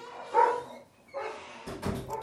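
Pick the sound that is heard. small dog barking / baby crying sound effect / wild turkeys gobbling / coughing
small dog barking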